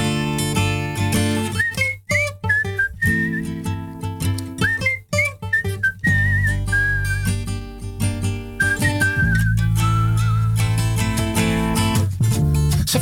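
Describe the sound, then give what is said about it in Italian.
A person whistles a bright, sliding melody in short phrases over a full band accompaniment with steady low bass and chords, the whistle sitting clearly on top of the music. “Il fischio poi eh, fallo te.”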